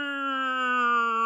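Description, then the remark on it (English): A voice imitates an alarm being raised in a barracks with one steady, sustained wail that sounds a bit like a cat. The nasal, slightly rising tone lasts just over a second and is moderately loud. “They're like, no, no, that's the cat alarm.”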